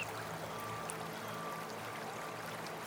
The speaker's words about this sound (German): Wenn im Schlummerland der Schnee in feine Flöckchen vom Himmel geht, geht er auch in die Bäche, die durchs Schlummerland flüssen und vermischt sich dort mit dem frischen, klaren Wasser.